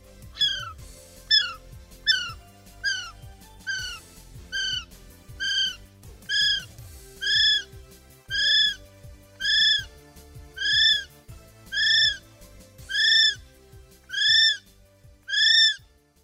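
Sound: kiwi bird call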